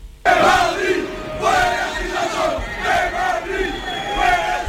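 A large crowd shouts rhythmic chants together outdoors at the Chueca march, authorized by the Government sub-delegation, voices rising and falling in repeated bursts, loud and sustained throughout like a street march.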